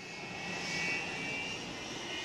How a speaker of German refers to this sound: Zu den Feierlichkeiten in Berlin reisen die meisten westdeutschen Abgeordneten aus Bonn per Flugzeug an. Zum ersten Mal seit 1945 darf in West-Berlin ein deutsches Zivilflugzeug landen und nicht nur eins der Alliierten.